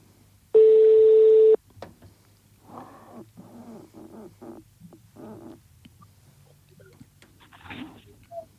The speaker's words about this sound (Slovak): No, si nám volal, nevedel som, že zvoní telefón, lebo nepočul som